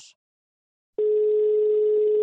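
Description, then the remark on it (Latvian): A telephone ringing tone comes through the line after a brief click and a moment of silence, a steady, loud electronic buzz that holds without a break until the end as a repeated call to a doctor goes unanswered. Nobody speaks. “Aicinu vēlreiz, zvanu bet Nikiforenko vairs neatbild.”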